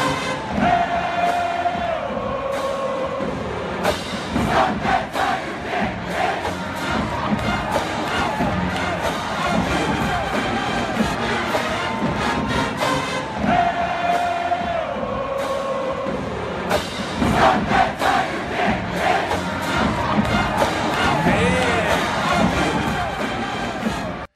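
A huge stadium crowd chants loudly and continuously over a marching band, voices rising and falling in a repeated rhythmic refrain with brass horns blaring underneath and occasional cheering swells.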